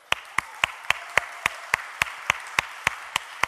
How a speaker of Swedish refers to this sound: Så jag tycker vi hedrar henne med en applåd tycker jag.